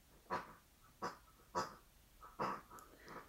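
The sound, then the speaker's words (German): A squeaky pig toy, played with by a dog, lets out a series of about six short, nasal honking grunts at an uneven pace, clear, with no talking. “Jetzt hört ihr im, Hintergrund so ein Schwein grunzen, weil mein Hund anfängt mit so einem Schwein zu spielen.”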